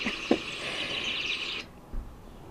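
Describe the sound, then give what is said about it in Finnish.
A dense chorus of many birds singing at once, a continuous bright wash of overlapping chirps and trills that cuts off abruptly after a second and a half, leaving quiet with a soft low thump. “Et se oli joka puolella. Oli ihana toi sun kuvaus, että ihan kuin olisi niin kuin lintu meressä.”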